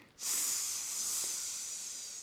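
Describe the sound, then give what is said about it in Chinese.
A steady, bright sizzle of an egg frying in a pan bursts in after a brief quiet moment and hisses on evenly at a fairly strong level, with no voices. “煎了一个金黄色的大荷包蛋，好香哦！”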